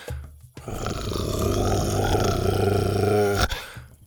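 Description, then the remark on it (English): A single low, rough growl rumbles for about three seconds, loud, rising slightly before cutting off. It sounds like a human voice imitating an animal's growl, with no talking around it. “When they reached it, Buck skidded to a stop and growled.”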